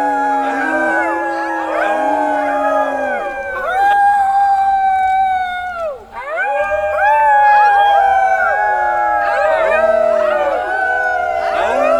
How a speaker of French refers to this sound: Vivre dans la nature, être féroce, attaquer ensemble les proies, être un loup, être une meute de loups.